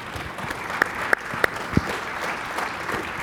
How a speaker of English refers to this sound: That, that, that applause was not nearly hearty enough.